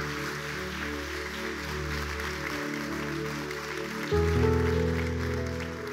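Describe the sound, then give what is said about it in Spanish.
A church audience applauds God steadily for several seconds, a dense wash of clapping over sustained keyboard or organ chords that shift and swell slightly louder near the end. “Vamos, dale un fuerte aplauso a Dios.”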